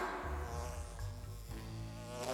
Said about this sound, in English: But not only was the honey sticky, sticky, sticky, the bees wanted it too.